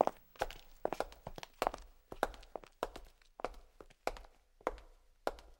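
Steady footsteps on a hard surface performed by a foley artist, a dozen or so crisp heel strikes falling in an even walking rhythm with brief scuffs between them, no voices present.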